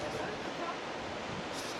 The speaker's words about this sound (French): Et on est vraiment sur la plage, quoi. Je sais pas si vous entendez, il y a les vagues derrière moi.